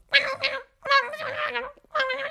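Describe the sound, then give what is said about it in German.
A person imitates a garbled, tinny voice coming through a telephone: three nasal, squawking babbles separated by short pauses, close up and with no other sounds. “Und jede Folge endet damit, dass die Janine Kunze einen Anruf bekommt von ihrem Mann und da hört man immer aus dem Telefon so”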